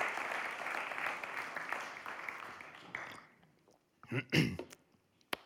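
A crowd applauds steadily for about three seconds, a dense wash of clapping that then thins and fades, followed by a couple of brief, louder bursts near the end.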